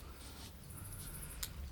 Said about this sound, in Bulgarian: Ние в момента, така доста усилено, белим раци. Тъй, че ще извинявате за определени хрускания, стържене.